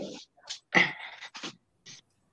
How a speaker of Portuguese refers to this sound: Meu cachorro tá ao fundo aí.